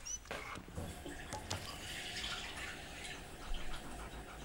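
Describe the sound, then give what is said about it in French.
Water runs and splashes steadily into a dog's bowl so the dog can drink, a continuous pouring sound with small clinks near the start, no voices. “Et moi je viens donner la gamelle au chien. Allez, viens boire.”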